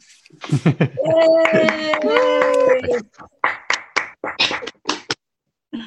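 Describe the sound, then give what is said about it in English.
Audience clapping: a few sharp, irregular claps thinning out to silence, following a stretch of voices and a sustained, tonal cheer. “It's nice to hear the clapping.”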